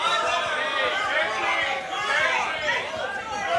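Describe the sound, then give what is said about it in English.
A large crowd at South by Southwest shouts over one another, a dense, steady roar of overlapping voices calling out basketball player names, loud and continuous for the whole few seconds with no single voice standing out. “listen to the crowd.”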